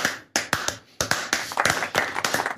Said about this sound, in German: Könnte noch ein bisschen länger sein. Das könnte eigentlich noch ein bisschen äh, größer der Applaus sein.